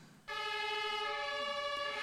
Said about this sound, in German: Das kann man zum Beispiel sehr gut anschauen anhand von einem Martinshorn, wo auf den Ambulanzen oben sind. Vor 100 Jahren haben die Martinshörner etwa so tönt.